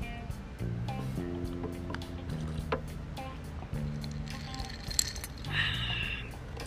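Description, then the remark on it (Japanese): Drink cans, including a Strong Zero, tap together in a toast, followed by a few bright metallic clinks and soft liquid sounds of sipping, all over a steady low tonal hum in the background. “まあ、あの後半戦スタートということで乾杯しましょうか、はい、お疲れ様ですお疲れ様です”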